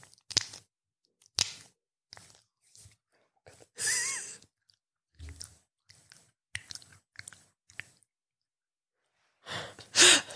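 Body lotion squished against skin makes a string of wet, sticky squelches in irregular bursts, some short smacks, some longer slippery smears, with brief silences between and no talking.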